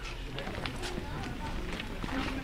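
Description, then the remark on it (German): Several people's footsteps crunch along a path beside a mountain toward a cave entrance at an uneven walking pace, with faint murmuring voices and a steady outdoor hum behind them. “Ja, und vom Noctales aus sind es dann ein paar Schritte neben dem Berg entlang zum Höhleneingang.”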